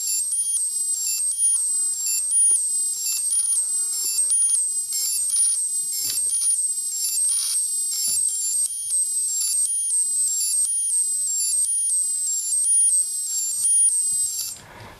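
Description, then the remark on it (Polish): Piercing, very high-pitched telemetry beeps from an analog weather radiosonde cycle through six stepped tones that carry meteorological data, in a steady, continuous repeating pattern, heard alone without any talking. “Sześć takich bardzo wysokich pisków to jest i one niosą właśnie te informacje meteorologiczne.”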